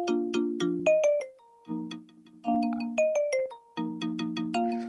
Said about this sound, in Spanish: Star Wars? Sí, pero en marimba. Ese es mi ringtone.